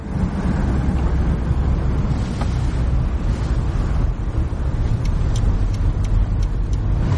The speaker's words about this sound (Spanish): El coche fúnebre toma un desvío. El chofer se muestra nervioso. Tranquilo, tranquilo, tranquilo, ¿vale? No pasa nada. El coche fúnebre y su comitiva salen de la autopista.